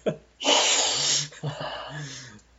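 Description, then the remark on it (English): Two long, loud nasal sniffs in quick succession, each a breathy, hissing inhale lasting about a second with a brief pause between them. “My sniff.”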